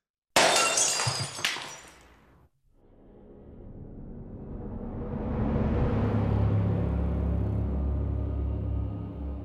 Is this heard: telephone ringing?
no